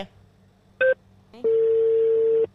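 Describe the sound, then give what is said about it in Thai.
Telephone dialing tones as a call is placed to a guest: a brief electronic beep, then a single steady mid-pitched tone holding for about a second before cutting off. No one speaks. “โทรเลย”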